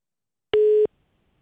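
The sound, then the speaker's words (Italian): A single short, steady electronic beep like a telephone busy tone, heard after a caller's phone call dropped, sounds clearly on its own, lasting about a third of a second before cutting off into silence. “niente, n- si è intimidito. Caduta.”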